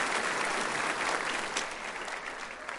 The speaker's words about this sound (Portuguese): Você pode dar uma salva de palmas para essa turma? Muito obrigado, gente.